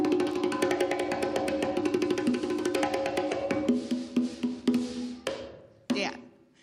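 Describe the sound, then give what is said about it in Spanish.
A band's percussion section plays on stage at a live concert, where the musicians are being introduced section by section: a quick, steady pattern of sharp hits over a sustained ringing tone, then thinning out into a few scattered strikes and one last loud accent before fading. “También así suenan las percusiones.”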